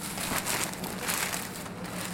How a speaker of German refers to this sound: Der nächste Andruck wird zerknüllt und in den Papierkorb geschmissen.